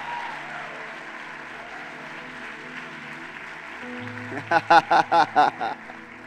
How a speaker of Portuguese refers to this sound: Antes de sentar, dá um aplauso a Jesus mais uma vez.